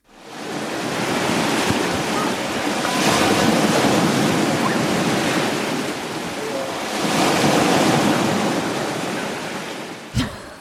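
sea waves

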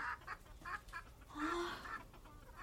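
chickens clucking

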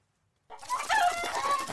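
rooster crowing sound effect

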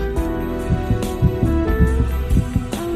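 heartbeat

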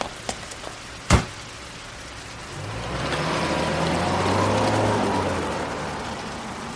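sudden rain shower

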